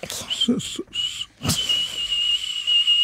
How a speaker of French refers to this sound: Un sifflement, c'est juste désagréable à la ah, base.